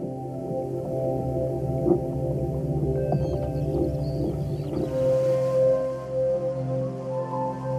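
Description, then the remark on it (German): Low, droning underwater whale calls with layered tonal moans and a few brief chirps, sustained throughout at moderate level with no talking. “Für das natürliche Verhalten winzig kleiner Organismen bis hin zum riesigen Wal. Wie sie fressen, jagen, wie sie miteinander sprechen.”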